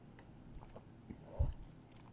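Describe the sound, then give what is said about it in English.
A quiet sip of sweet, fruity-smelling wine: soft wet mouth noises build to one brief slurp near the middle, then taper off. No one speaks. “Whew give it another sip.”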